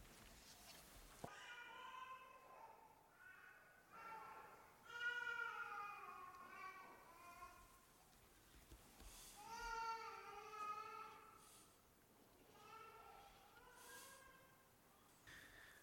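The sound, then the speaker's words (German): A young child cries during a moment of silent prayer in a worship service, in a series of drawn-out, wavering wails, each rising and falling, with brief breaths in between. “Herr, ja, wir haben dieses Kind eben schreien hören.”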